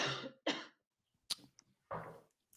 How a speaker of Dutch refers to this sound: Ehm, ik moet even hoesten, sorry.